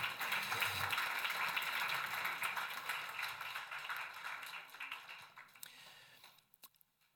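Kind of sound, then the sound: crowd, applause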